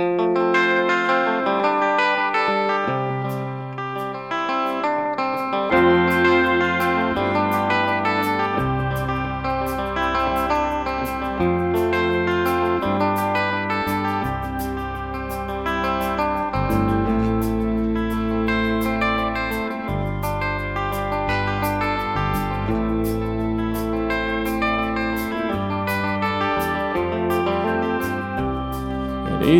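A rock song's instrumental intro with heavily processed, chorus-and-echo-drenched guitar over a shifting bass line, playing loud and steady throughout with no vocals yet.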